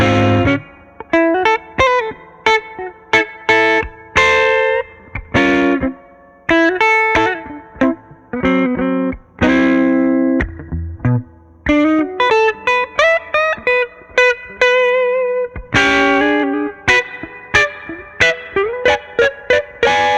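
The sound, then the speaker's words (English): Clean electric guitar, a 335, played through a Headstrong Little King tube amp using a Surfy Bear reverb instead of the amp's onboard reverb, picking out choppy chords and short melodic runs with a springy reverb tail behind each note. Loud, no voices. “For instance, let's listen to this example of me using a 335 into a headstrong Little King, but I'm using the Surfy Bear reverb instead of the onboard reverb from the Little King.”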